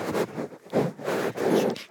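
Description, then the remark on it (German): Stiff tulle fabric of a dress rustles in three or four swishing bursts, a dry, crinkly noise rising and falling in a loose rhythm with no voices. “Du kommst oh. die ganze Zeit mit dem Tüll, die ganze Zeit raschelt es.”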